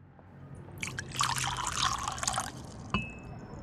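Liquid drips and trickles in a quick flurry of small wet splashes, followed by a single sharper drip near the end; no one speaks. A sheet of white paper is dipped into a cup of tea in a small apartment.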